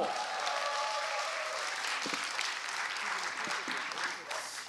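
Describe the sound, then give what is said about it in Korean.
Steady, dense applause from an audience welcoming a speaker for a short lecture fills the whole stretch, a continuous wash of many hands clapping that holds at an even loudness and eases slightly near the end. “내 인생의 꼴통 스토리 여러분 큰 박수로 청해 듣겠습니다.”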